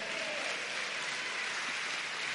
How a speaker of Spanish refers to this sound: ¿Cuánto dan un aplauso al Señor por eso?